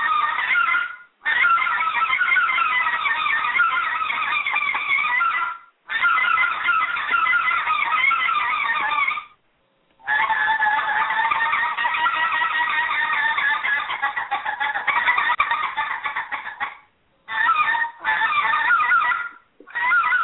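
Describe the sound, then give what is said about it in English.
A goose call is blown in a run of loud honking bursts, several sustained stretches of rapid nasal clucks and honks separated by brief pauses, with no talking. “Well, let's let's give us a demo of that frickin' call if you don't mind.”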